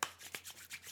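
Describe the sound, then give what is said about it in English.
Dry, brushy friction of palms rubbing together, a few quick back-and-forth strokes with soft swishing bursts, no talking. “Yeah, this is the sound of me rubbing my the hands together.”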